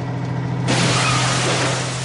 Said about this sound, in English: We plunged forward in a shower of wire netting and broken timbers, knocking down a dozen Triffids as they crowded towards the gates.